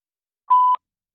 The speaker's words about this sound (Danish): Velkommen til voicemail. Mm. Indtal din besked efter tonen.